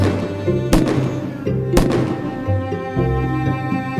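Two sharp, loud pistol shots crack about a second apart, muffled as if fired through a door: the dealer Van Kruchten shooting through his door at robbers trying to open it, over a steady low musical backing that keeps playing throughout.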